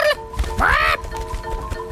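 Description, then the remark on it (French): A bird gives a short nasal quack, then a louder, longer rising quack with a bright, harmonic tone. Both calls are clear, with faint background noise and no talking. “Hein pourquoi elle a dit un oiseau très spécial quoi Vous avez jamais vu un oiseau qui parle”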